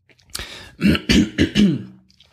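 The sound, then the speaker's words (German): A person clears their throat in a few quick, gravelly bursts, the rasping pulses bunched together over about two seconds, with no speech alongside. “Ich bitte um Entschuldigung, wir haben hier leider an diesem Mikrofon keine Räuspertaste.”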